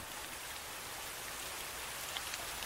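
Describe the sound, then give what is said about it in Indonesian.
Heavy rain pours steadily at night in a dense, continuous hiss, with scattered drops pattering on a surface. No voices, just the constant downpour throughout. “Hujan turun dengan derasnya malam ini.”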